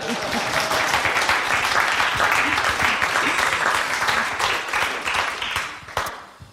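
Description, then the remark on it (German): A crowd applauds steadily, a dense wash of many hands clapping at an even level for several seconds before it thins out and fades toward the end; the audience of a Deutschlandfunk Kultur discussion recording at the Museum für Kommunikation in Berlin, on 5 December. “Sie haben auch gerade schon Publikum gehört.”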